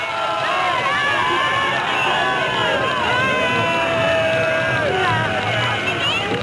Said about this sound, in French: Et vous entendez tout le monde chanter, chanter des chansons, pousser des cris en, l'honneur, en l'honneur de la victoire.